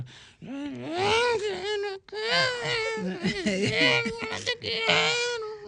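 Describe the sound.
A voice mimics a dog-like howl, singing a wavering, drawn-out wail fairly loudly, broken by two brief pauses for breath, imitating how a female singer sometimes sings a little like dogs.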